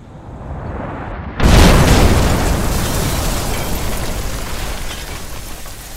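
A low background rumble suddenly gives way to a single loud, concussive explosion blast in a cafeteria, toppling chairs and throwing dishes to the ground, followed by several seconds of dense, roaring debris noise that slowly fades without fully dying away.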